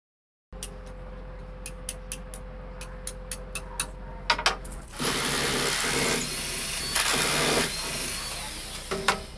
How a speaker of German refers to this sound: Hier wird kräftig Hand angelegt, es wird gehämmert, gebohrt, gesägt. Es ist was los auf dem Schöpfungsgarten der Landesgartenschau in Ingolstadt.